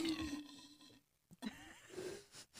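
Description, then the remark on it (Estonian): A quick swig from a glass bottle: a hollow, airy tone, a brief pause, then a soft gulp and a faint breathy whistle. No one speaks. “No pressure jah, oota, võtan oma hipster sellest äh, klaasist äh, pudelist lonksu.”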